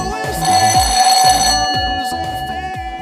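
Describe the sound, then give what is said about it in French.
A doorbell rings at 2:30 a.m. during a loud house party: a loud, sustained electronic bell tone over thumping party music with a steady bass beat, holding for a couple of seconds before fading into the music. “Il est 2h30 du matin quand la sonnette retentit une première fois.”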